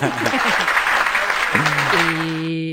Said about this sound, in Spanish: Bueno, aplaudo yo, aplaudo yo.